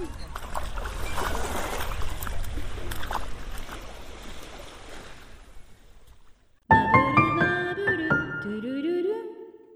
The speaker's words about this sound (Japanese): 最終回の今日はなんと、ワイキキビーチから生放送でお送りしていますイエーイ波のいい音がしますね。オーシャンビュー。